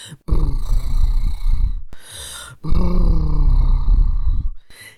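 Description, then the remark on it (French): A person blows two long, loose-lipped fluttering exhales like a horse snorting, fairly loud, separated by a brief breath, with no talking; the sound is made during labour contractions to let go and not hold back. “qui a un son euh, qui ressemble un peu à, celui d'un cheval, mais du coup qui permet de ne pas retenir.”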